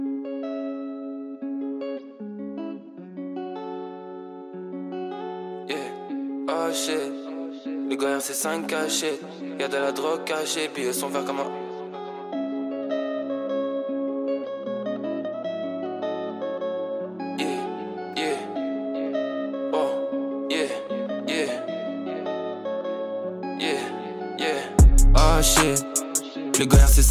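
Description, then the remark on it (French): A rap track from an EP by a Belgian rapper plays continuously, with a rhythmic rapped vocal delivered over a steady beat and sustained melodic synth tones, ending in a louder burst near the close. “On se passe tout de suite un extrait et c'est disponible à streamer et voilà.”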